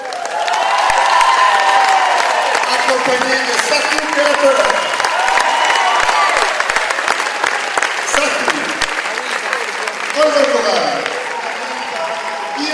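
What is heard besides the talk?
audience applause and cheering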